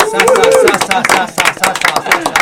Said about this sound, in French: alors, pour vous parler de ce choix musical, la personne qui l'a sélectionné, une membre de notre équipe qu'on va applaudir, c'est la première fois qu'elle va s'exprimer à ce micro.